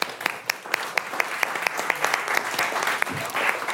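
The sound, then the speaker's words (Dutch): An audience applauds steadily, a dense wash of many hands clapping at once with a few sharper claps standing out, sustained at a moderate level throughout. “Ik wil een groot applaus”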